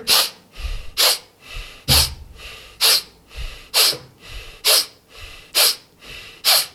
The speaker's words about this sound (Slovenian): delamo te kratke vdihce skozi nos, poskusi narediti. Dej. No, dej. Nar, vsakeč, ko narediš pest, na vso silo vdihneš skozi nos. Poskusi. Samo skozi nos.